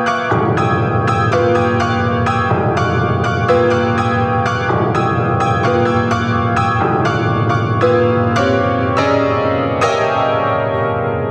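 Loud, ringing piano chords struck in a steady rhythm, about one or two per second, letting overtones shimmer and decay like pealing bells, building to a brighter final chord that rings out; a piano piece depicting the Nativity of Christ with joyful bells.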